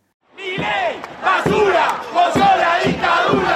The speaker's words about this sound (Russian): Что скандирует разгневанная толпа на знаменитой Майской площади в Буэнос-Айресе, куда до сих пор выходят матери пропавших без вести в период диктатуры Виделла и Гальтьери, требуя правды о своих детях. Разгневанная толпа кричит «Милей, мразь ты